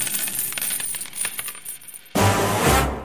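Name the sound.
coin dropping and bouncing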